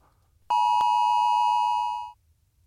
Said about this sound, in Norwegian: Da kommer den. Fra, og den eh, går tre-fire ganger, og så får du altså et varsel på telefonen din hvor det står sånn stor rød, nei, gul sånn varseltrekant. Du vet, med sånn utropstegn.